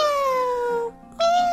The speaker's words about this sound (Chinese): 我们一起去看一看九只小猫在哪里吧。喵